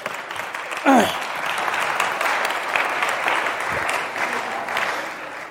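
An audience bursts into a sustained round of applause, a dense, steady wash of clapping lasting several seconds, with a brief whoop or cheer rising above it near the start.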